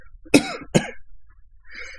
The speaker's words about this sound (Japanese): すいません、咳込みます。